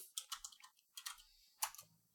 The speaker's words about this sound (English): Sorry, typing is hard.